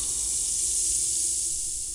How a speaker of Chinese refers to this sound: 只听到土坑里传来了一个极其微弱的声音，那声音像是被扎的车胎正在慢撒气一样。